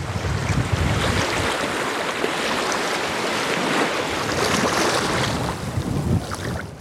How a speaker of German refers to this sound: Wetter wird auch immer besser. Schön, dass der Wind endlich nachlässt.